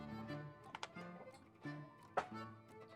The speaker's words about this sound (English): Come on, dice, be nice to me.